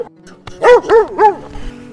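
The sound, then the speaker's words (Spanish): A small dog, Amarillo, barks three times in quick, evenly spaced succession, the yelps loud, with a faint hum underneath and no talking. “Hasta que un día apareció amarillo, un perrito.”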